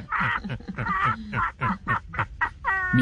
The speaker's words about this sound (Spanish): qué pena, se nos metió una gallina. Saque la gallina, por favor, gracias.